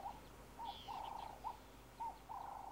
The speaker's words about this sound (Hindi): जहां सुबह की शुरुआत गर्म कॉफी से नहीं बल्कि मिट्टी और गोबर से लिपी दीवारों की खुशबू बांच के पेड़ों पर बैठी घुघुती की सुरीली घुरून से शुरू होती है